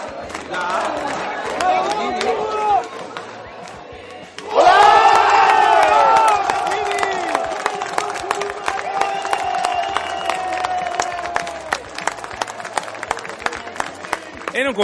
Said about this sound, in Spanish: Escuchemos el himno del vagabundo.